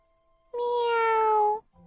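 A small white cat gives a single drawn-out meow, steady and fairly loud, its pitch sliding gently downward for about a second before stopping abruptly, followed by a faint low hum.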